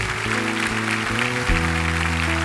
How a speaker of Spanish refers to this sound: Es una bendición tenerlos, es una bendición que estén aquí. Alguien encargó hablar sobre la fe a ustedes y el Señor los trajo. Y por eso les damos un aplauso en esta tarde.